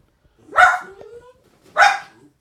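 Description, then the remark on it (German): A dog barks twice, loud, with a short gap between the barks and a faint whine in between. No one speaks. “Ich glaube, der hat einen Hund gesehen.”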